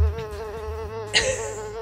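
A fly buzzes with a steady, wavering drone for about two seconds, briefly rising in pitch and intensity midway as if darting past, with no speech.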